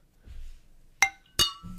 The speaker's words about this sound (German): Wir können nochmal ein Stößchen. Ein Stößchen. Machen.